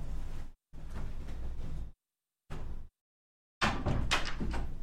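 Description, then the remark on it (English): A door is handled and pushed shut, with a few short scraping, rattling bursts separated by silence, ending in a louder, fuller close. “Let me close the door, you guys, because there's a little bit of an echo.”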